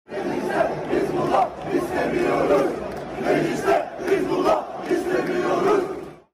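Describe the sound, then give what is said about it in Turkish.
A large crowd of Beşiktaş football fans chants the slogan "Mecliste Hizbullah istemiyoruz" ("We don't want Hezbollah in parliament") in unison, celebrating a match Beşiktaş won 4-1. The chant is loud and sustained, with rhythmic rises and falls in the massed voices repeating every second or so. “Son olarak da karşılaşmayı 4-1 kazanan Beşiktaş'ta taraftarlar mecliste Hizbullah istemiyoruz diye tezahürat yapmış.”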